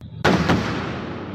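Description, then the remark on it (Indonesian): A sudden loud blast from explosives used to build an underground tunnel for the Batang Toru hydropower plant near Sipirok, South Tapanuli, North Sumatra, Indonesia, bursts in after a brief quiet moment, followed by a heavy rumbling roar that lingers and slowly fades, with a second thud just after the first. “Suara itu bersumber dari aktivitas pengeboman untuk pembangunan terowongan bawah tanah pembangkit”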